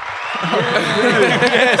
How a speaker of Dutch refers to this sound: Applaus!